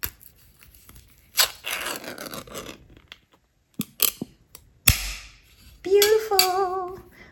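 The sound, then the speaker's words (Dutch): A tin of Smak canned meat being opened: rough scraping and tearing noises, a few clicks, a sharp metallic pop, then a high, wavering squeal near the end. “Ik ga de smak openmaken”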